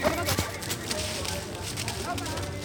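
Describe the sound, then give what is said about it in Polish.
Irregular clip-clop of yearling horses' hooves striking the ground as the yearlings are being shown, steady over a busy outdoor background with voices murmuring. “To są roczniaki i pokazywane są w tej chwili roczniaki, nie?”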